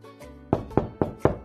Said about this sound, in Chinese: 他们来到乌龟家门口，小趣开始敲门。小乌龟没有开门，甜甜也来敲门，